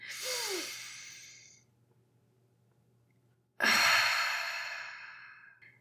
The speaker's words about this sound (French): Ok, maintenant on va prendre une grande respiration ensemble pour déstresser. Vous allez inspirer plein de positive énergie.